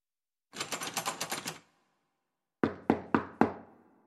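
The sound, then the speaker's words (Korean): A quick flurry of rapid knocks, then a pause and four loud, heavy, evenly spaced raps on the wooden door of a son's room, locked from the inside, with no voices. “노크를 하고 소리를 질러도 응답이 없었다.”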